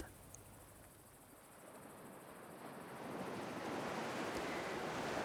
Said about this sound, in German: Schon nach den ersten Metern kannst du das Blau des Meeres sehen. Sanfte Wellen bewegen sich in ihrem eigenen Rhythmus an den Strand.